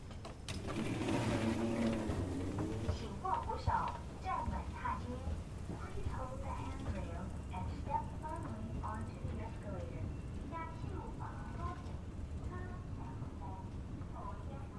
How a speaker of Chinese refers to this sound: 这个是电扶梯的声音，不知道大家今天早上是不是也是搭着电扶梯，然后在月台上等捷运，准备要去上班呢？